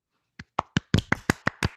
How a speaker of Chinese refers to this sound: 好久没鼓掌，开心。